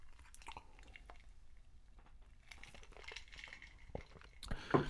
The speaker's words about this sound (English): Oh, I gotta drink water.